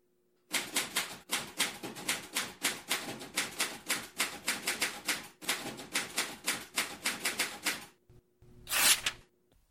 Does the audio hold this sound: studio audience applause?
no